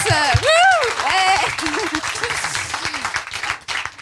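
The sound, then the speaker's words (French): An audience at a live comedy show applauds, a dense, steady wash of clapping that carries through the whole stretch, with a voice or cheer rising and falling over it near the start. “Euh, quand on a des tentatives d'applause, on suit hein, derrière.”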